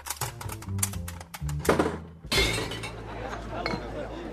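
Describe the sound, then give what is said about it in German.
Glasses clink repeatedly in a lively outdoor beer garden, with sharp bright chinks over a steady murmur of crowd chatter, ending in a denser wash of background noise. “Neulich war ich mit einem alten Freund richtig schön im Biergarten, allerdings nicht ganz ruhig dort.”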